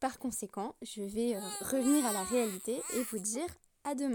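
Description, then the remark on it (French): A baby who has just woken up cries in the background, calling out with wavering wails rising and falling beneath a man speaking for most of the few seconds. “mais comme vous pouvez l'entendre en fond, le bébé vient de se réveiller et m'appelle.”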